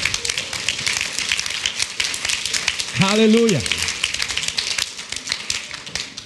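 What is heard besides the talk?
audience clapping hands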